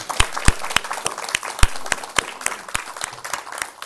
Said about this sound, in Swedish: Det var värt en applåd. Ja, eller hur? Ja.